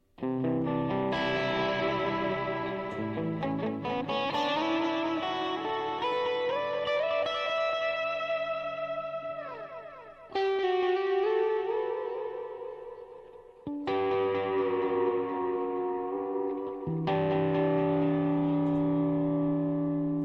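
Electric guitar with single-coil pickups, drenched in effects, with sustained, shimmering chords and swirling pitch sweeps, heavy modulation and distortion, played loud and continuous with a couple of abrupt chord changes and no talking.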